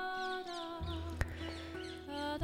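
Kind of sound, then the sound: bird, birds chirping outdoors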